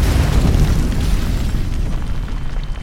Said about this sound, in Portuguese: E aí, vocês ouvem uma explosão gigantesca.